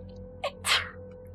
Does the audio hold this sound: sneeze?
yes